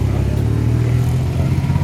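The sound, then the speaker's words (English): Triumph powerboats race by, engines roaring loudly and continuously, a deep, throaty drone that holds steady, with no voices heard. “There go the, there go the triumphs.”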